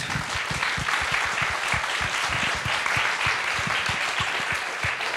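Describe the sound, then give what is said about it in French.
A crowd claps steadily and loudly, a dense patter of many hands filling the room without pause for several seconds, with no one speaking over it. “Je vous demande d'applaudir très fort.”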